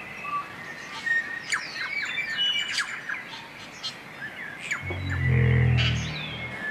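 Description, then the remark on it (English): A dense chorus of thousands of birds calling at once in towering forests of rimu, totara and kauri trees: overlapping squawks, chirps and whistles, deafening and continuous, with a deep low booming rumble swelling near the end. “They would have paddled through towering forests of Rimu, Totara, and Kauri, filled with the deafening calls of thousands upon thousands of birds.”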